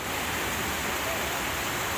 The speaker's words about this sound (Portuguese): Água fresca e de boa qualidade, que jorra das comportas abertas em direção ao Mar da Galileia.